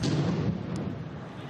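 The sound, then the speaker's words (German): A loud, deep explosion bang booms out with a heavy low rumble at the Stade de France in the 16th minute of a France versus Germany football match, while a dense wash of stadium crowd noise carries on around it. “Die erste Explosion gab es in der 16. Spielminute beim Spiel Frankreich gegen Deutschland. Die Zuschauer erschreckt ein lauter Knall.”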